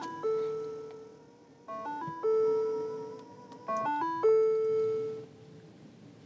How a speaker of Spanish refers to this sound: ese sonido que ustedes acaban de escuchar ahí, que fue el que produce a la hora de que enciendo el auto, ese sonido es el que ha sido desarrollado por la Orquesta Filarmónica de Detroit.